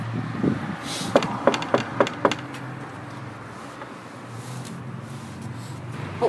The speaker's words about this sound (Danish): Skal vi prøve at banke på og høre om... Øh, det kan vi da gøre. Om dit synes noget om den kanin. Ja. Skal vi bare banke, eller hvad? Ja, start med at banke.